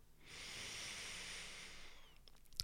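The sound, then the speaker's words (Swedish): A single long, deep breath drawn in through the nose while breathing with the belly, a steady airy hiss lasting about two seconds, with no talking. “Och bara ta ett djupt andetag in genom näsan.”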